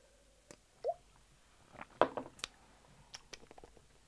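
Someone takes a quiet sip of water between tastings of whisky, with soft wet mouth clicks and a brief gulping swallow, followed by small lip and glass sounds, otherwise hushed.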